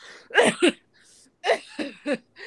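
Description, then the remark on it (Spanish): A voice imitates a man's nervous coughing tic: a quick pair of short, throaty coughs, a pause, then three or four more clipped bursts in a jittery rhythm, fairly loud. “Una, dos, su tic de toser.”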